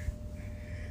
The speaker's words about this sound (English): If you hear snorting in the background, it's my dog.